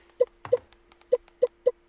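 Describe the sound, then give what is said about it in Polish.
A phone interface sound marking the edge of a list while navigating the Settings of the recorder (dictaphone) app: five short, mid-pitched blips at uneven intervals over a faint steady hum, one of them accompanied by a soft, muffled thump. “ten dźwięk oznacza, że jest to jakby, nazwijmy to, krawędź”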